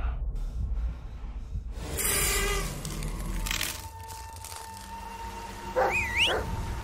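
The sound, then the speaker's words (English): A dog snorts in a few rough, breathy bursts, then gives a short whining vocalization that rises and dips near the end, over a low background rumble. “Yeah, good dog.”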